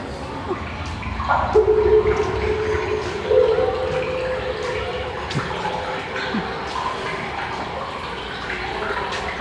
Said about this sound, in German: Und das Wassergerüst ist unten in einem Kanal, da in diesen Kugeln, und oben in der Decke kommt das Echo davon. Und es gibt wirklich ein, ein geheimnisvolles Wasser.